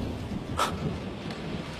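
A steady, rough rumble of storm noise during a lightning storm, with one brief, sharp crack of thunder breaking through partway in, then settling back into the low, windy roar.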